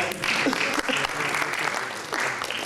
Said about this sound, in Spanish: Bueno, gracias. Un aplauso para el voluntario, por favor.